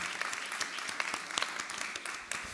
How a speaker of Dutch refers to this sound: Mag ik jullie handen zien? Even een applaus. Ja.